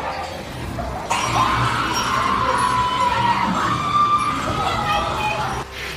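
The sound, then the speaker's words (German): Visitors scream loudly and continuously right at the start of the Goals Haus at a horror attraction, where they are greeted with flamethrowers and chainsaws; overlapping shrieks and yells rise suddenly after a brief murmur and cut off near the end. “Ja, man hört schon, es wird auf jeden Fall viel geschrien.”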